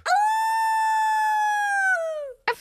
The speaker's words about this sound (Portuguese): Afinal, é outro lobo. Ai, coitadinho, vamos deixá-lo entrar.